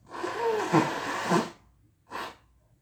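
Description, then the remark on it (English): Someone blows their nose: one long, forceful, noisy blow lasting over a second, a brief pause, then a shorter second honk. No talking. “I blowing my nose.”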